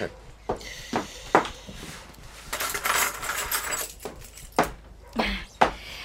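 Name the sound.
keys jangling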